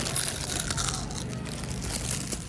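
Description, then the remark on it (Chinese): Crisp, crackly crunching of someone biting into a freshly fried, glutinous snack with homemade red bean filling, a dense run of dry crackles lasting a couple of seconds, fairly loud with no talking. “因为是刚出锅的，所以特别脆，然后糯糯的。”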